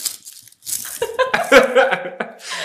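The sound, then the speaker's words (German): Dried leaves of a half-withered poinsettia (Christmas star) plant crinkle and crackle as they are handled, in irregular dry bursts of rustling that rise and fall over a couple of seconds. “Also Leute, guck mal, so hört sich die Blume an.”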